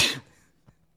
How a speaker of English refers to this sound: Bless you. Excuse me. that got me so excited I sneezed.